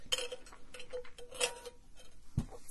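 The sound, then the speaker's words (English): Someone takes a sip of mango-flavoured sparkling water, a LaCroix-style drink of another brand: quick crackly, fizzy clicks and small taps in irregular bursts, ending with a short low thump, with no talking. “Anyway, let's take a drink of mango LaCroix water.”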